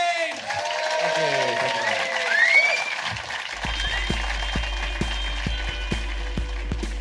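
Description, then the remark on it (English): An audience applauds the comedian Rhys James loudly and steadily, a dense wash of clapping with some whoops and voices at first, then continuing under a regular thumping beat. “Ladies and gentlemen, give a massive round of applause to the amazing Bruce James.”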